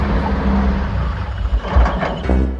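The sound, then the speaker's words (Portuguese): A heavy truck engine rumbles low and steady as a shop's truck pulls up at a couple's house door, its deep drone holding throughout with a few louder surges and no voices. “Uma zoada de caminhão chegando, será que é ele?”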